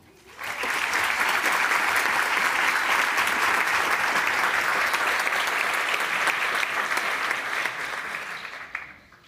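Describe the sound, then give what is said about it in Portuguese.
An audience bursts into sustained applause for the first speaker of a talk event, a dense, even clatter of many clapping hands that holds steady for several seconds before tapering off at the end. “Então eu queria pedir para vocês uma salva de palmas para o nosso primeiro palestrante”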